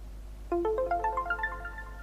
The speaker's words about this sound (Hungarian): Amikor így ad ki hangot, mint amikor belementünk a mappába, akkor mindig egy másik kategóriára ugrik, és azért van ez a hang.